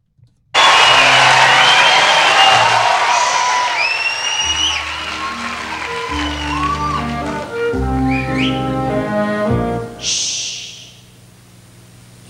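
An enthusiastic concert crowd at a 1995 live performance cheers loudly, with shrill whistles rising through the roar; about halfway in, sustained instrumental chords begin and continue beneath the fading cheers.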